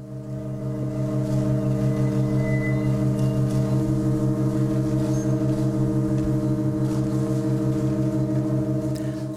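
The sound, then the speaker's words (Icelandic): A church organ playing Organ 2, As Low As Possible by John Cates holds a sustained chord of several steady low and middle tones, with a faint beating pulse. Early on the chord changes as a D is added to the notes, then it drones on unchanged. “var breytt í vikunni með því að bæta DE inn í nótnarsamsetninguna og mun nýja hljómurinn sem samanstendur þá af C, DS, D, Dís, E, Æs og öðru E hljóma í kirkjunni næstu ádján mánuðina eða vel fram á sumar 2025.”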